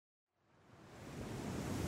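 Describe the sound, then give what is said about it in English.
After a brief silence, a loud, steady roar of strong wind and crashing sea waves on a windy day by the sea swells in and keeps building, a dense, rushing wash of noise with no voices. “It's so windy! Look at the sea and the waves!”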